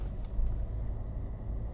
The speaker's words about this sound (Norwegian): Hvis lyden er litt dårlig, så er det rett og slett fordi at jeg spiller det inn mens jeg sitter i bilen.